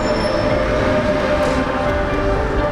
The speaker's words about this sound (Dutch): Zo, en terwijl mijn trein verder gaat naar Bruxelles, blijf ik hier in eh, Rotterdam.